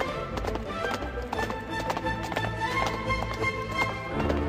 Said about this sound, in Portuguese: Vocês então montam seus cavalos e saem disparada da cidade, seguindo as instruções que lhes foram dadas.